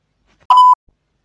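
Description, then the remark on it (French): A single short electronic beep marking the start of an audio recording, steady in pitch with a bright onset and a clean tonal tail, loud against silence, lasting about a quarter second. “Alors sans plus attendre, après le bip, cet audio peut commencer.”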